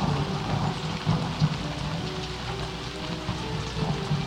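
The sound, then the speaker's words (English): Heavy rain pours steadily at night, a dense hiss over a deep, continuous rumble that suggests rolling thunder. No voices are heard. “Wasn't supposed to be any lightning this late in the...”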